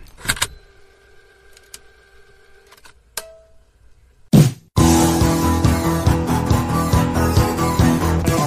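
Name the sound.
cassette tape rewinding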